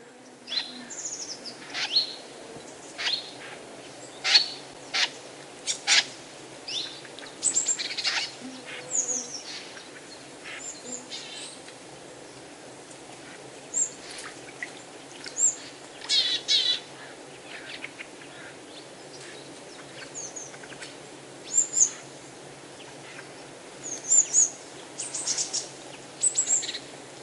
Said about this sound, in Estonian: tänase saatelõigu lõpetuseks kuulame sügisese luha linnuhääli võsas tegutsevate värvuliste sädistamist